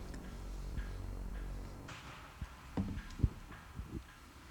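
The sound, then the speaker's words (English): Dice rolled for an attack, outside the dice tray, clatter across a hard tabletop in a quick, irregular burst of sharp knocks and rattles that settles after a few seconds, modest in loudness, with no voices. “I always forget to roll these in the tray. They're not in the tray.”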